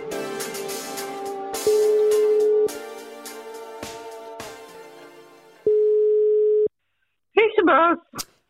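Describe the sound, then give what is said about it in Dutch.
An outgoing call to the speaker's mother rings twice, each a steady mid-pitched beep about a second long, spaced roughly four seconds apart over faint music, followed by a brief voice at the end. “Ja, ik bel je even voor een, een tussentijdse evaluatie.”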